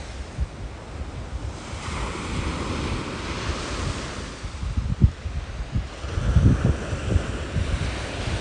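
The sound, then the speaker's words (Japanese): Ocean waves roll in and break against the shore in a steady, broad wash of surf, with wind gusting across the microphone and a stronger surge swelling near the end. “ゆっくりとまぶたを閉じて波の音を一つ一つ自分の呼吸と重ねていきます”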